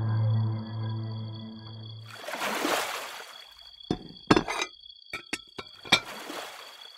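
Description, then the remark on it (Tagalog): After a brief rush of water, dirty drinking glasses clink together several times in a quick, irregular cluster, bright, with a faint high ringing lingering between the knocks. “Dalhin mo nga dito yung mga maruruming baso.”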